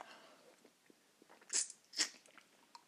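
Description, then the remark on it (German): Two sharp, bright crunches of a large ice cube being bitten, taken briefly out of the mouth to suck off the water, a short pause between them, with faint small clicks and crackles around them and no talking. “Oh ich mache den Eiswürfel immer nur so kurz raus.”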